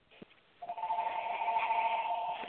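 A steady electronic ringing tone starts after a brief click and holds at a constant pitch, moderately loud, a phone ringing in the background on a caller's end of a phone call, with no one talking.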